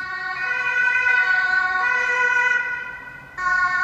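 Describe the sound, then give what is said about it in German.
A fire brigade command vehicle's siren blares past in Bochum, a loud, steady two-tone wail with bright harmonics, dipping briefly before resuming abruptly. Road noise rumbles underneath and nobody speaks. “ja, Leute, das gibt's nur hier im, äh, im Podcast Taxiteller äh, live, ähm, wie hier die Feuerwehreinsatzleitung vorbeifährt.”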